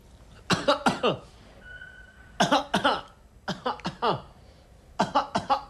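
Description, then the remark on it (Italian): A patient at a doctor's examination coughs in four harsh bursts, each a quick cluster of two to four fairly loud coughs, with short pauses between them and a faint whistling tone in one gap. “Non le ho ah. detto di tossire.”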